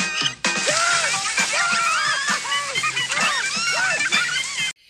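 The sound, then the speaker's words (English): A cold shower runs steadily with a constant hiss of spraying, splashing water as Bandit takes a cold shower in the cartoon Bluey, while high, wavering shrieks and squeals repeatedly rise over it until it cuts off abruptly near the end. “Nits hate cold showers.”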